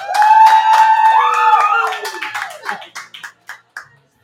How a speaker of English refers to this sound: So, can we give these wonderful ladies a round of applause, please?